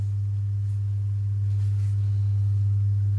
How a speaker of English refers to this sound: We could edit this out, but I can take the hum out.